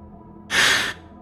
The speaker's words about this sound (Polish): I wtedy to usłyszałem. To przeklęte sapanie. Było wszędzie, w pokoju, w kuchni, na zewnątrz, dobiegało z każdego możliwego miejsca.